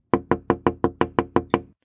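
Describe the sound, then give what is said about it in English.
A quick, steady run of nine soft knocks on a door, evenly spaced, each a short hollow tap fading fast, with no voices around them. “And there came that gentle knock again.”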